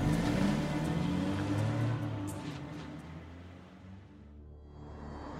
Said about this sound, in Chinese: 乞丐连忙把东西收拾好，跑到一辆黑色、略显陈旧的桑塔纳前，打开车门，把东西放进副驾驶的位置上，而他进入驾驶室，发动汽车，踩下油门，扬长而去。